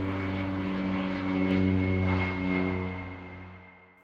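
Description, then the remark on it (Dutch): A propeller airplane, an Air France Lockheed L749 on flight 009 in October 1949, bound for a stopover in the Azores, drones steadily overhead, its engine hum thick with low harmonic tones, swelling slightly in the middle before fading away as it passes. No voices. “Maar het vliegtuig haalt het niet en stort omstreeks twee uur s'nachts neer op het eiland São Miguel.”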